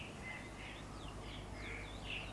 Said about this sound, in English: Somewhere in the distance, the sound of birdsong was beginning to break the silence of the night, and the pitch black sky was beginning to give way to a rising orange glow of the morning, a canvas of new colours, the wonder of a new day.